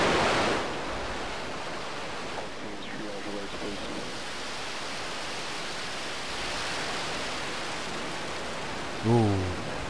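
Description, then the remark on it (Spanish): Raptor rocket engines roar at liftoff in a steady, dense, hissing rumble that holds for the whole stretch, with brief faint voice fragments surfacing now and then over the noise. “Eso de ahí que se está viendo en este preciso momento es uno de los motores Raptor.”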